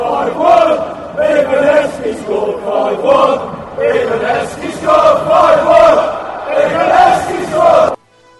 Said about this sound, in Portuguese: O quinto gol é de Heskey e a música que a gente acaba de ouvir a torcida cantar é, explica, fala assim, 5 x 1 quando o Heskey marca.